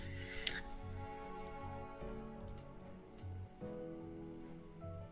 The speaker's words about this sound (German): Wir Aber hören fließendes Wasser. ich würde meine Hand trotzdem nicht dafür ins Feuer legen, dass das hier ansatzweise sauberer ist.